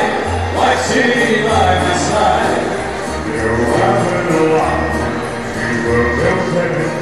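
A busy shopping centre in Madrid that has hired a band to sing Christmas carols while people shop, the singing over a steady crowd murmur, the music sustained and moderately loud with pitched bass notes throughout.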